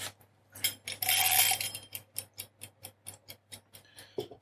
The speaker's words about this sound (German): Und zwar 25 Minuten. Also, nein damit. Und stellen an Wecker, da ist er.